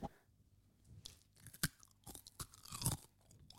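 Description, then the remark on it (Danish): Crisp crunching and chewing of a cookie, with sharp irregular bites and crackles over about three and a half seconds, no talking. “Jeg elsker at høre mig selv knæse.”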